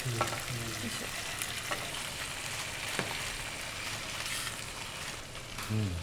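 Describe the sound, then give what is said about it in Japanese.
Steady, dense sizzling of okonomiyaki batter frying in hot oil, a bright crackling hiss that runs unbroken throughout, with a few soft clicks and low thuds from utensils along the way. “油はこれ本当これだけを焼くんだったらめっちゃ多いんですけど今からお好み焼き焼いていくんで”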